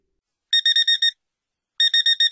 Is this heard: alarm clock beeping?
yes